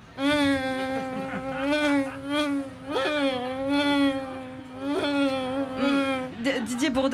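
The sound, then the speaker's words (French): A loud bee-like buzzing hums continuously for about six seconds, wavering in pitch and swelling in pulses, apparently a human voice imitating a bee of Roubaix replying to an interview question about politics, before cutting off abruptly. “Même les abeilles de Roubaix”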